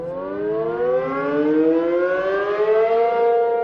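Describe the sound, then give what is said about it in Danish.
A tornado warning siren wails loudly and continuously, its steady tone slowly climbing in pitch across the whole stretch, with no voices present. “Hvis man nu var i skole, og så siger skolelæreren, nu skal vi i sikkerhedsrummet, fordi der er en tornado-alarm.”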